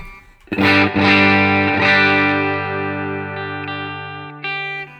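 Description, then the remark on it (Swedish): A clean electric guitar with an ash body and maple neck, played on the neck pickup, strums a few chords that ring out and slowly fade, followed by one more chord struck near the end. No one speaks. “Den låter i alla fall så här, här lidmicken på rent då”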